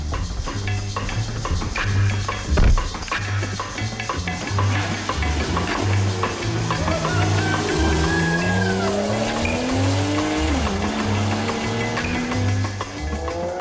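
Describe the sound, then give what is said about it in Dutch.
A powerful car engine revs hard and climbs steadily in pitch as it accelerates, with a brief shift and a hint of tire squeal, loud with no voices. “Helaas, dit zijn niet wij die wegscheuren.”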